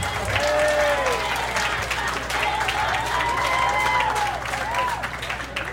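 A crowd at a public ceremony with municipal officials applauds a municipal secretary steadily for about six seconds, dense clapping at an even, loud level, with scattered cheers and whoops rising over it.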